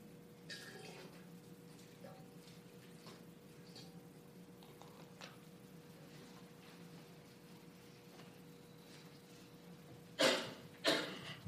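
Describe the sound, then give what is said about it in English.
Water trickles and pours softly at a steady low level, with faint drips, then two brief louder splashes near the end, as water is poured out as an offering in honor of healing. No one speaks. “And so I offer this water in uh, honor of the power of healing and as a reminder that all water is healing.”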